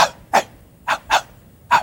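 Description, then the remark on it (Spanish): A person imitates the bark of their old dog, which has no voice, with five short, breathy, voiceless huffs, hoarse and whispered rather than voiced, spaced unevenly and fairly close, with no talking in between. “¿sabes que mi perro no tiene voz? Y ladra así.”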